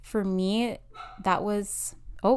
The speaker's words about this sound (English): that was my dog barking. If you hear him in the background, I'm just going to give you a heads up. My dog is with me and he barks. so if you hear barking in the background, you know what it is.